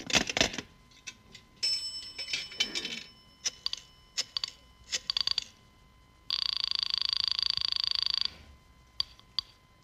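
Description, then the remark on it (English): Clicking and rattling of a rotary telephone in a drugstore phone booth being dialed to call information, a series of sharp mechanical ticks with a brief ringing tone, then a steady two-second buzzing whir before more scattered clicks. “I'll call information.”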